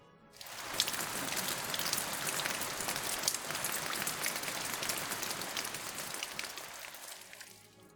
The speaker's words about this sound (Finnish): mutta laitetaan nyt sitä sadetta vielä, vielä kerran.